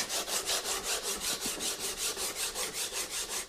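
Sandpaper rubbed briskly over a wooden picture frame primed the day before, roughly smoothing its surface to prepare it for gilding in a gilder's workshop in Vienna's Wieden district, in quick, steady back-and-forth strokes, a dry scratching rasp repeating about four times a second with no voices.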